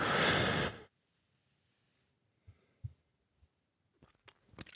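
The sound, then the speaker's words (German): A single loud, harsh cough, then near silence broken by a few soft clicks and small mouth noises. “Moment, ich muss nochmal husten.”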